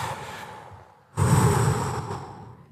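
Breathy rushing air as people take a deep breath together: a softer breath fades out, a short lull, then a loud group inhale or exhale surges and slowly trails off. No talking.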